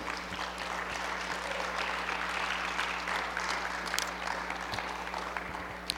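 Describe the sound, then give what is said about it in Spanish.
An audience applauding together, a steady, dense wash of many hands clapping that holds evenly for several seconds with no voices on top. “¿Alguien puede aplaudir todavía?”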